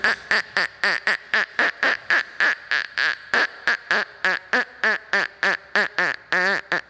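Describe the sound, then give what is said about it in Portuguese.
A duck quacks loudly in a rapid, steady string of about twenty nasal quacks, with no other sounds or voices. “Também foi trazido para viver no riacho um pato, que vivia tentando conversar com a minha avó, mas ela falava patês muito mal, quase não dava para entender.”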